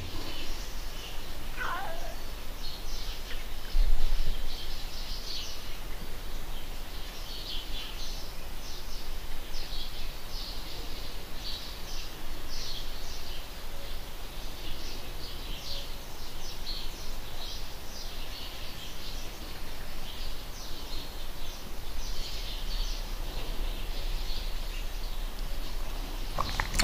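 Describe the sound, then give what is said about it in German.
Birds chirp outdoors in a steady, overlapping chatter of short high calls that runs the whole time, over a constant airy background hiss. “Vögel da draußen.”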